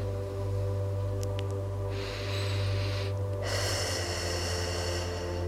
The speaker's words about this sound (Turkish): Güzel bir nefes alalım.